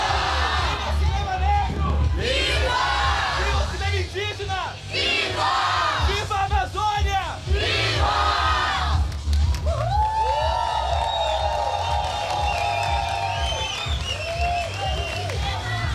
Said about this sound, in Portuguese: Nós estamos ao vivo, UX FM, direto do tapete vermelho, rua coberta, nesse momento em que os artistas fazem essa manifestação pacífica. Uma manifestação, vamos ouvir.